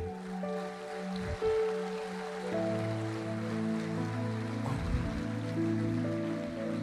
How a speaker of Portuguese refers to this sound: Começa a aplaudir a Deus aqui.